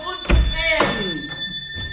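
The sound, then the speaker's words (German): A doorbell rings on and on without a break, a steady, shrill electric tone lasting the whole moment, with a few knocks and a brief voice underneath. “Deswegen brauchen Sie doch nicht Alarm zu klingeln.”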